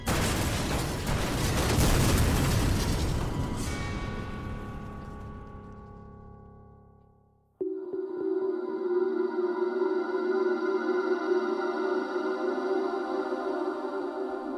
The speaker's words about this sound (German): Und es gibt sieben weitere heftige Explosionen in diesem Moment.